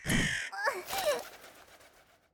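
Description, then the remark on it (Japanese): Harsh crow caws, a raspy burst followed by a couple of shorter hoarse calls, fairly loud, then trailing off into quiet. “カラスどもの気配がうせた一体何が起きたのじゃ人間こやつがカラスどもを追い払ったのか”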